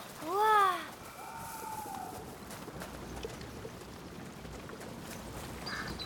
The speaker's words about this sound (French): Oh C'est quoi ces oiseaux Des canards. Oh Comme ceux qu'on mange Oui. Et les canards mangent des grenouilles.